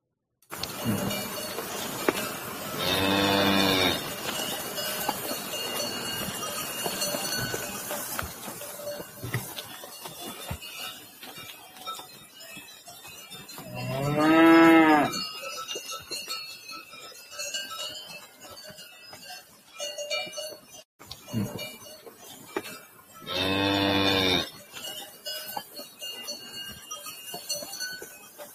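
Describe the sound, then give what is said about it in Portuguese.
A cow moos three times, each call a long drawn-out low bellow spaced several seconds apart, heard clearly over faint outdoor background noise with no one talking. “Eu vou clicar aqui e vocês vão ver que tem mesmo uma vaca dentro desse pendrive.”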